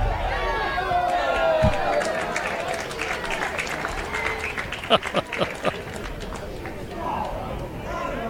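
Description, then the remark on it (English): A baseball strikes a hard surface just below a crowd microphone outside the press box at a baseball game with one sharp, loud crack, set against a constant crowd murmur with people talking, followed a few seconds later by a burst of scattered knocks and claps. “that hit right below my crowd mic, which is outside the press box.”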